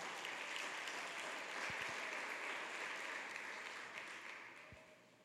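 An audience applauds steadily, a dense wash of clapping from many hands that holds level for several seconds before gradually thinning out; no one speaks over it.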